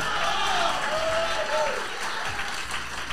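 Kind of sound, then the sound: crowd, audience applause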